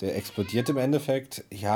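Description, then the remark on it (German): A cat meows once or twice in an apartment, its whiny call partly buried under a man talking steadily in the foreground. “Äh, Leute, wenn ihr einen Miauen hört, das ist mein kleiner Nörgling, der hier in der Wohnung durch die Gegend Der kleine rennt.”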